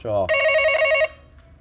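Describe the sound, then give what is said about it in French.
A single ring of a telephone line on a call waiting to be answered, a steady electronic tone lasting about a second, preceded by a brief voice and followed by quiet. “il a une grande maison, donc il met du temps à répondre.”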